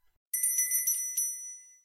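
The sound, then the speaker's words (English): A bright, high-pitched bell rings in a quick flurry of strikes, then its metallic tone lingers and fades away. Clear, with no voices. “ring the bell so you don't miss out on a ton of great info.”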